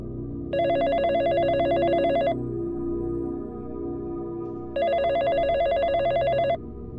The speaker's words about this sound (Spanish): Eran las 2.48 de la madrugada cuando sonó el teléfono.